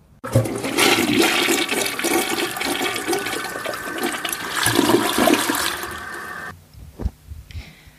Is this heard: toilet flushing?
yes